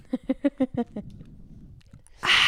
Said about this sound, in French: La première bière est ouverte. J'en prends maintenant dans vos oreilles, telle une impolie, une gorgée.